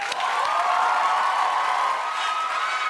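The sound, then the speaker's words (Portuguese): An audience applauds steadily for about three seconds as the show's guest arrives, a dense, even wash of clapping mixed with some cheering. The sound stays loud and constant throughout, with no one speaking over it. “Do alto de números recordes de vendagem, acessos e visualizações na internet, ele chega aqui para receber o vosso aplauso.”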